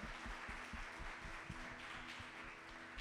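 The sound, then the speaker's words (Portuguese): An audience at a worship service applauds steadily, a dense patter of many hands, soft, with a rhythmic low thumping beneath it and no voices. “Senhor está aí anotando todo mundo que aplaudiu para ver se vai estar tá aqui.”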